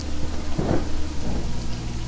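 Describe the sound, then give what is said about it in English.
Heavy, steady rain pours down in a dense hiss while a low rumble of thunder rolls underneath, swelling briefly near the middle. No voices are heard. “The Book of Umbra was stormy and moody, as usual. But page 57 meant rain cold hard rain.”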